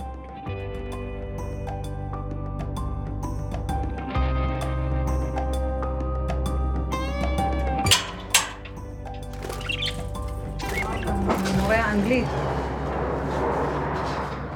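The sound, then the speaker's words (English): An army airplane passes overhead at El Masar Elementary School in Daliyat El Carmel, near Haifa, with a steady, loud, low droning roar that shifts in pitch over about fifteen seconds, joined by a couple of sharp knocks and scattered high chirps. “The, the noise we're hearing, it's you said it was the airplane all the time.”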